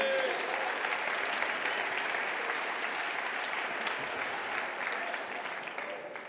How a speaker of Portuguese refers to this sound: Aleluia! Você pode aplaudir bem forte, Jesus.